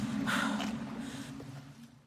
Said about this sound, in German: Man hört Wellen und genussvolles Atmen.